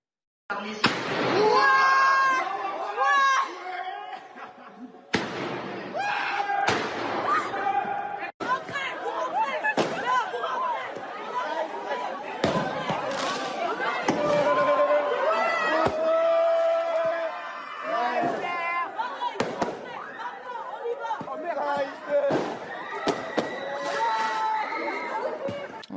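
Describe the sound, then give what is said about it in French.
Sharp firework mortar bangs go off one after another at irregular intervals, fired in the courtyard and inside a high school in the Yvelines and filmed on a mobile phone, loud against the constant shouting and excited chatter of a crowd of young people. “On y assiste à des tirs de mortier d'artifice dans la cour comme à l'intérieur de l'établissement.”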